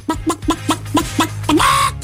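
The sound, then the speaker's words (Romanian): Someone imitates a turkey gobble loudly: a quick run of about seven throaty, rhythmic pulses that ends in a longer, higher warbling call, with no other talking. “Nu aș vrea să pierd încrederea în mine că sunt singurul care face ca curcan”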